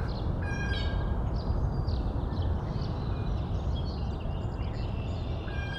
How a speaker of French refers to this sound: Euh, il, y a une, belle profondeur de, de, chant. On a entendu un rapace, je pense. Euh. puis il y, a une, diversité de passereaux forestiers aussi. C'est très très beau parce que c'est très calmant.